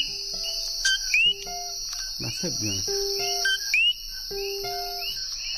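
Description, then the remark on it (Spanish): High-pitched coquí frog calls in a night forest in Puerto Rico, quick rising two-note chirps repeating at intervals over a constant shrill insect drone, with a brief spoken voice in the middle. “tenemos al sapo Pepe, el coquí”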